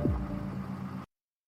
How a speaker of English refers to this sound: Cops pull up. It's a Ghostbuster car. A Ghostbuster Trailblazer.